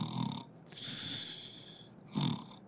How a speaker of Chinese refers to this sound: 哎，所以我们都鼓励说，来就医之前哦，没关系，你给他侧录一下， 就录音，看看他的那个打呼声是不是很规律。